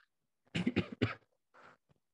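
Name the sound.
coughing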